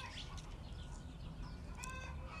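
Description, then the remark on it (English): Chickens cluck and squawk repeatedly outdoors in the morning while laying eggs, a busy stream of short calls with one bird's louder, drawn-out cackle rising near the end over a constant low rumble of background noise. “The chickens cannot stay silent when they're laying eggs like I get that it's can't be a pleasant experience.”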